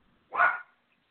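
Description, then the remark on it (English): A single sharp dog bark, loud, standing alone in an otherwise quiet moment with no talking over it. “I think if if it was going to be sorry for the dog.”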